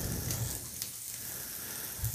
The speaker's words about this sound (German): So, die Enden von den Met Enden schneide ich ab. Ich mag nicht da diese, dieses Gekrussel da dran immer am Ende. Und die schmeiße ich jetzt in die Pfanne, weil ich wollte die so ein bisschen anbraten,